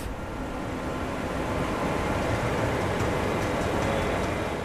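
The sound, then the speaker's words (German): A steady rumble of a night train in motion approaching Hamburg main station, Germany, dense low-end roar with a faint rattling hiss on top, continuous and unchanging for a few seconds with no voices. “Nach ein paar Minuten sind wir am Hamburger Hauptbahnhof.”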